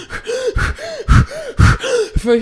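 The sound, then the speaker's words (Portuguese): Someone imitates a girl's rapid, heavy panting while she was in a trance: about five rhythmic breath cycles in quick succession, each harsh exhale followed by a short voiced, gasping intake, with no talking. “Aí ficou aquela coisa, aí a menina começou a ofegar.”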